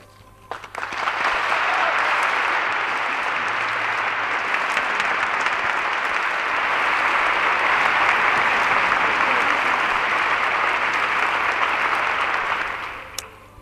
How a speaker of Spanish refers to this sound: un aplauso, el más sincero que pueda brotar de quienes nos escuchan.